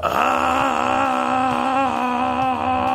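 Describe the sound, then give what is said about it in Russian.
A person vocally imitates the scream of a video game enemy, a headless man running at the player with a large cartoon bomb in each hand: one loud, sustained wailing yell held steadily for about three seconds, with no talking. “Вот он бежит вот так вот орет, при том, что у него нет головы.”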